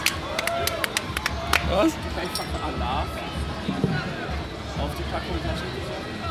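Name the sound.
small round of applause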